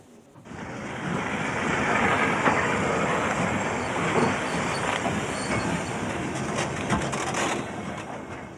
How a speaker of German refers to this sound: Wir sind von Saalfeld aus mit einem Güterzug in Richtung Karlau-Orlamünde unterwegs.